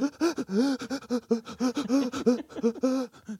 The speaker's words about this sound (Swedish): vill du höra min andning? Det går så här.